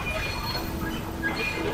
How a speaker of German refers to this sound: Pünktlich auf die Minute. da kommt ja auch unser Zug.